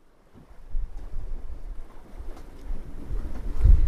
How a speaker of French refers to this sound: Bon, ok, le vent s'est un peu calmé